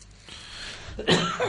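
A man coughs once, close and fairly loud, a short harsh burst near the end after a brief breathy rasp, with no talking around it.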